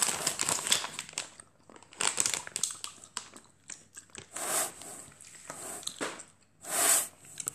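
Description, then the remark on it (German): Candy wrapper being crinkled and torn open: a run of crisp, irregular rustling crackles, with several louder bursts of crinkling toward the end and no talking. “Ich mache jetzt mal erstmal Verpackung.”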